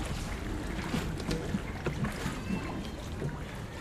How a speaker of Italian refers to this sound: il rumore del remo nell'acqua